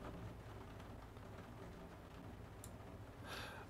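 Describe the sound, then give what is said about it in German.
Light rain starting to fall again, heard from the top floor of a building: a faint, steady hiss of fine drops with a couple of brief, sharper patters near the end, no voices. “Regen setzt langsam auch wieder ein.”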